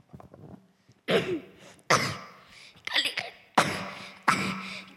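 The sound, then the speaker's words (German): A harsh coughing fit: five forceful, raspy coughs in quick succession, each a broad noisy burst, with a short quieter pause before the first and no speech. “Ein Hustenanfall, oh Mann, oh Mann.”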